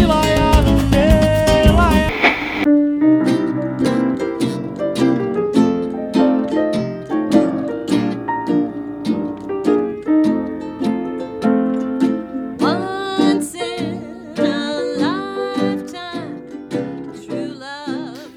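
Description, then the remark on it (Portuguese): A loud, full-band intro jingle plays on its own, with bright melodic lines and a steady rhythmic pulse that begins with a dense burst and carries on for nearly twenty seconds. “Roda a vinheta.”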